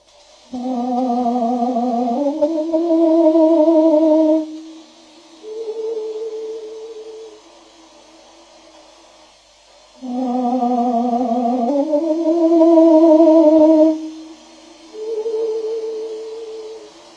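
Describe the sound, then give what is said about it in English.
Slowed-down bird song, released by Peter Szöke, with a rich, voice-like tone, sounding like a singer warming up: two matching phrases of sustained, gliding harmonic notes stepping upward, each ending in a softer low note, with a pause between. “That is the sound of a bird, slowed down to a pace that the human ear mistakenly recognizes as its own.”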